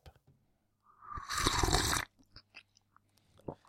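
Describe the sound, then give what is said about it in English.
A rubbing creak of headphones lasting about a second, rough and crackly, followed by a few small scattered clicks and ticks in otherwise quiet surroundings. “And a creaky headphone”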